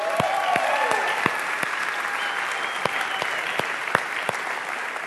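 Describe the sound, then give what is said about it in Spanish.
An audience applauds the Viaín production team steadily for about five seconds, a dense wash of clapping with a few sharper individual claps standing out, and faint voices or cheers mixed into the crowd. “Incluso si les quieren regalar otro aplauso, yo creo que se lo merecen.”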